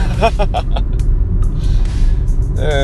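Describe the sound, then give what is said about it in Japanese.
A steady, low engine rumble from a car being driven at night toward a farm fills the whole stretch, with brief voice-like sounds rising over it near the start and end. “でね、夜中に、まあ、ちょっと今、農場に向かって車を走らせてるところなんですけども”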